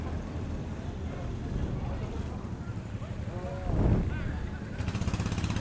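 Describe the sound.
A racing kart's engine rumbles low and steady as it enters the pit lane during an endurance race in dense fog, then swells briefly as it approaches, its pitch rising and falling, before a rapid buzzing idle takes over, with faint voices in the background.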